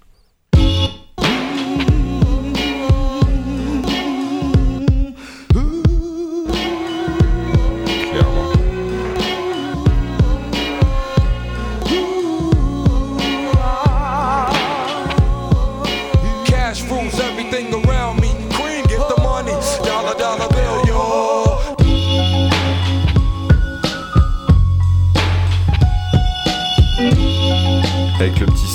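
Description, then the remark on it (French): A 1990s hip hop instrumental beat plays loud: booming kick and snappy snare in a steady loop under a repeating melodic sample, with no vocals, the bass thickening near the end. “… est un des meilleurs morceaux du … mais pas que, c'est aussi une des meilleures instrus de l'histoire”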